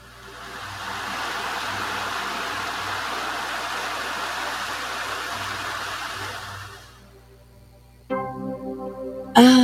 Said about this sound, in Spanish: Cuando la lluvia cae, el agua se recoge en ríos, lagos y arroyos. Escucha cómo fluye el agua en un río.